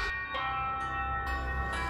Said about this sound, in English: Alarm bells rang out through the night, and the village stirred, but it was too late.